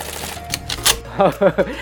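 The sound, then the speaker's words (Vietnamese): A voice imitates an ATM dispensing cash: a few quick clicks and a whirring burst, then three short, rhythmic buzzing pulses, like bills being pushed out. “podcast cho nên cũng hơi khó hình dung đó là tiếng tiền chạy ra từ trong máy ATM đó mọi người”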